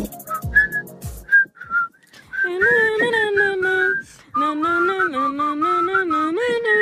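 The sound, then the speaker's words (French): Someone whistles the tune they whistle every morning, starting with a few short chirpy notes, then carrying into longer, wavering melodic phrases with a brief pause between them. “Salut la team Move, ça va ou pas euh, Moi, ce que je siffle tous les matins, c'est.”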